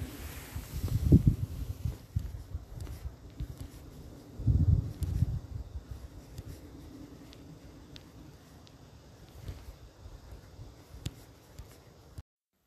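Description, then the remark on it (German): Soft outdoor ambience where wind gusts rumble in a couple of low bursts over a steady rustle of leaves, with a faint city hum beneath and no voices. “Und mit diesem Wind und Blätterrauschen und ein paar Stadtgeräuschen verabschiede ich mich und wünsche dir ein schönes Mabon.”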